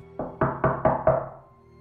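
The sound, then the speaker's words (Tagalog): Five firm knocks on the dirty wooden door of a fourth-floor unit in a steady, even rhythm, fairly loud, each with a short resonant decay, followed by quiet. “Matagal akong kumatok pero walang nagbukas ng pintuan.”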